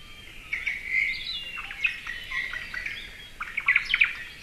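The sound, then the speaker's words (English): White-eye calls, from small birds about four inches tall: a busy series of thin, high chirps and twitters overlapping one another, continuous, with no voices present. “White eyes are known as generalists.”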